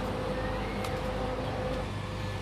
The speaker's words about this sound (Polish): Dźwięki generatorów, bo prądu tutaj też nie ma. Pojawia się tylko na chwilę.